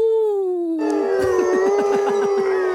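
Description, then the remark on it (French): A single long, steady wolf-like howl is soon joined by several more voices, people imitating a pack howling together, with wavering, bouncing calls layered over the sustained tone, loud. “On n'a pas un petit bruit de loup, là”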